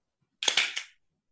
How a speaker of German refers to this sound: Und einer von euch hat die richtige Lösung gefunden. Es war nämlich ein Tacker